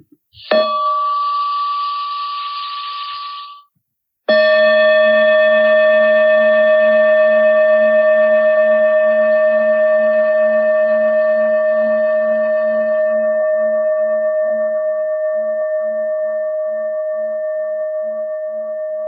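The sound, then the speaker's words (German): A bell is struck twice: a first ring cut short after a few seconds, then a second that rings on with bright sustained tones and a low, slowly wavering hum, gradually fading, with no talking. “Jetzt werde ich eine Glocke einladen.”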